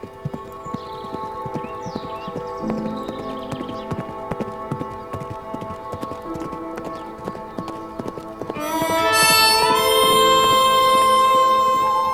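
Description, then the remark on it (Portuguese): Hooves of Johnny, a horse heading home with its owner on a journey of a few kilometres, clip-clop in a steady rhythm throughout, then the horse lets out a loud, drawn-out neigh near the end while the hoofbeats continue beneath it. “O cavalo relinchou e os dois seguiram adiante, uma viagem de alguns quilômetros até seus lares.”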